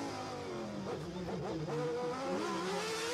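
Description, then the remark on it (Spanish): A loud, continuous Formula 1 race car engine whines at high revs, its pitch climbing and dropping as it accelerates and shifts, steady for about three seconds with no talking. “Sí, ahora se mira cómo iba el auto”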